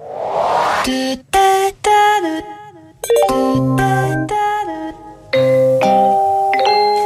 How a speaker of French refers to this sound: L'un de vos best-sellers ou chef-d'œuvre euh, par sa notoriété, c'est la signature sonore de la SNCF. On l'a en tête, mais on n'a pas forcément en tête qu'il y a autant de versions différentes.